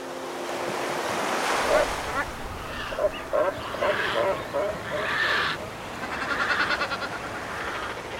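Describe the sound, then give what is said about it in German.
Steady roar of ocean surf breaking against granite rocks in the sea off the coast of Peru, with rushing wind and a few faint bird-like calls cutting through the continuous wash of water. “Ein paar Granitfelsen im Meer vor der Küste von Peru.”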